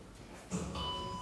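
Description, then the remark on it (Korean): A steady electronic beep tone from a hidden-camera conformity experiment, in which a group stands up and sits down at each beep, sounds in the second half: a single sustained note that starts abruptly after a short thump and holds to the end, fairly quiet over low background noise. “여러분 이 사람은 삐 소리 맞춰 모두 다 앉았다, 일어났다 앉는 이 사람들 속에서 어떻게 행동했을까요?”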